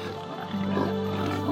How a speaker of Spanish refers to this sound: Y como cerca de allí, junto al cerro, había gran número de cerdos comiendo, los espíritus le rogaron, mándanos a los cerdos y déjanos entrar en ellos.